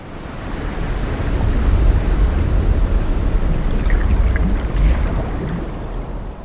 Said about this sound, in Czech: Když pak proplouvali kolem ostrých skal, viděli, jak se najednou mořská hladina nad nimi rozbouřila.